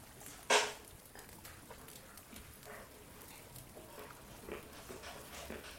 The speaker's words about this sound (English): I'm eating peanuts.